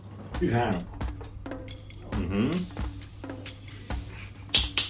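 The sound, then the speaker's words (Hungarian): A steady, airy hiss comes in about halfway through and carries on to the end, sitting beneath people talking, with a few light clinks and knocks scattered throughout. “Ez már a második sziszegés, amit ma hallunk.”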